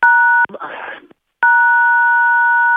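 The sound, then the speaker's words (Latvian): Loud phone keypad tones over a call line as a radio listener calling in presses the buttons: one steady dual-pitched beep, a brief garbled crackly burst and a moment of silence, then a second, longer held beep. “Jūs tur spiežat pogas, sākat vēlreiz, lūdzu.”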